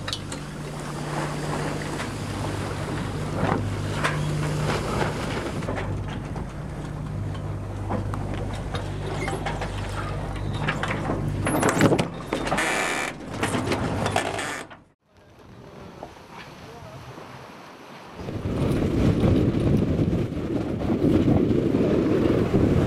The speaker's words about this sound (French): Un petit peu mou en vent quand même. Hein. Pour l'instant, 12 nœuds, un peu timide, mais ça va venir.